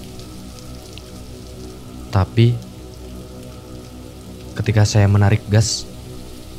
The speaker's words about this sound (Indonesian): Dan saya siap-siap untuk ngebut karena takut dan juga gerimis yang semakin deras.